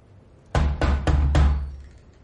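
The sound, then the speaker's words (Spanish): Four firm knocks on the entrance door of a shop, dull and heavy, with the third and fourth spaced slightly wider apart. The knocks stand alone against faint background hiss, and nobody speaks. “Lu llama a la puerta.”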